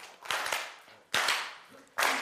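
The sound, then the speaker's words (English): Sharp hand claps in irregular bursts, a quick pair, then a single loud clap and another after a pause, each with a bright, crisp snap and short ringing tail. “And let me clap again.”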